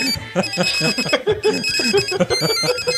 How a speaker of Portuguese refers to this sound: Hoje em dia, celulares tocando, musiquinhas.